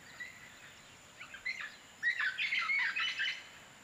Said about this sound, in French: On se croirait dans l'Amazon, Donc on est immédiatement pris par la forêt. Et puis là, il y a des, oiseaux extraordinaires, il y a des bruits, il y a des sons.